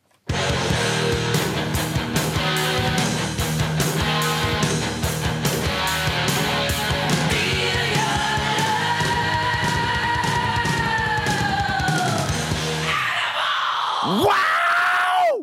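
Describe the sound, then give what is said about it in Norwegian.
Loud, dense rock music with pounding drums and distorted guitar at a driving pace, a held guitar note bending through the middle, and a wild screamed vocal sweeping up and down at the end. “Veldig bra spilt både på gitar og trommer. Og bass, selvfølgelig.”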